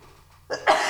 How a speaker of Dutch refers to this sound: Moet even niezen.